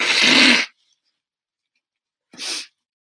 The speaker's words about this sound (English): excuse me, I just need to have a sneeze.